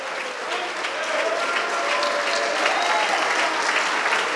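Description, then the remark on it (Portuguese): Sustained applause from a church audience welcoming each person who comes forward, a dense, steady wash of many hands clapping at an even, fairly loud level throughout, with a faint murmur of voices mixed in. “Cada pessoa que chega, nós vamos nos alegrar e aplaudir mais.”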